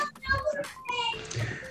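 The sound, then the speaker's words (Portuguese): Children's voices chatter and call out in the background at a house, a lively, overlapping jumble of high-pitched play sounds, with a faint low rumble underneath. “Acho que como a gente conseguiu observar, crianças brincando, então tá tudo certo.”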